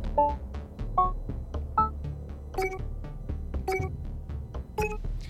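Racing game corner warning beeps over a steady low engine rumble, played at the start, middle and end of a curve: three evenly spaced lower tones, then three brighter, higher-pitched beeps with a sharp click at each onset, the final end-of-curve warning higher. No one speaks.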